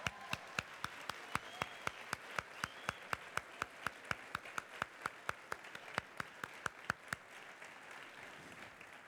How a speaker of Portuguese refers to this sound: Pode aplaudir.